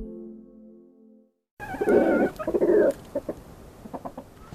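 After a brief low hum and a moment of silence, two roosters and two hens in an enclosure cluck and squawk, with a loud burst of agitated calls followed by shorter, scattered clucks.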